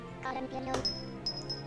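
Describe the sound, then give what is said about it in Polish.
A video game heart pickup sound: a quick soft hit followed by a bright, high-pitched chiming tone that rings out twice, over a steady, low musical hum. “Tu jak zbierzemy serce, właśnie.”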